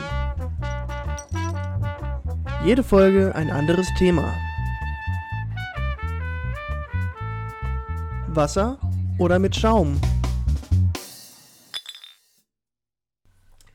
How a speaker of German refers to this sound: Sag mal, was hältst du denn von dem Intro? Du hast es jetzt, halt, glaube ich, auch das erste Mal gehört.